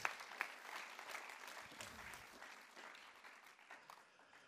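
An audience claps in a dense, sustained round of applause that starts strong and gradually thins out over a few seconds, with a hint of crowd noise beneath.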